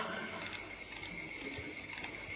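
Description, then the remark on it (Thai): A steady stream of water pours continuously, an even rushing splash with no breaks and no voices over it. “มันกลายเป็นสายน้ำมันถี่จนเกินถี่มันได้ติดกัน้ะเห็นไหมมันได้เป็นสายน้ำอย่างนี้”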